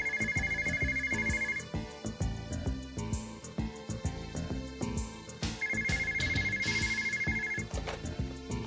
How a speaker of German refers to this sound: Drei Tage nachdem er den Verlust seines Reisepasses bemerkt hat, klingelt das Telefon.